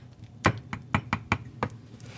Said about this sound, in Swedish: Trä mot kastrull. Det är härligt. okej, kanske inte så sensuellt, jag håller med.